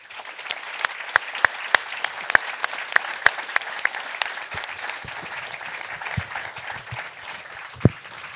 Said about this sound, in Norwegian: Men gi panelet en applaus.